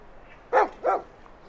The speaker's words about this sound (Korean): 들리시죠? 나비 짖는 소리.